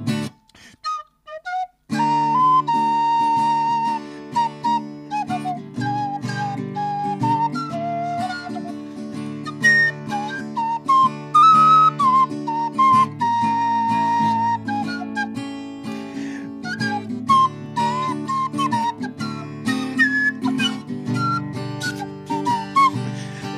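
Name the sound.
whistling a song melody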